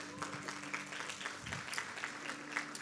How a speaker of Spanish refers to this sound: Un aplauso para Cristo.